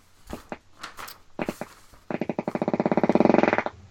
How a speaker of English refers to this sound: what's that sound? Moving in my chair. Ah, it's not you. Not you breaking wind then. No, that's just the leather chair here.